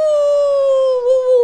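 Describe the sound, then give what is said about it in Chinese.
A voice imitates the howl of the big bad wolf: one long, steady, sustained tone that slowly sinks in pitch, loud and alone, with a slight wavering near the end. “大野狼啊，一下子就站起来，然后呢，哦，呜呜”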